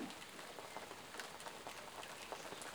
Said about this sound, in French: Mais peut-être que vous entendez d'autres bruits chez vous, peut-être que la pluie également dans ce podcast n'est pas le seul bruit que vous pouvez entendre.